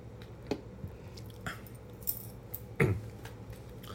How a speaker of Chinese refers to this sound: 等我一下，喝个水。